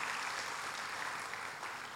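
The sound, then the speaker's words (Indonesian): A church audience claps steadily in applause for Jesus, dense overlapping applause at moderate loudness without pause. “Berikan tepuk tangan buat Tuhan Yesus.”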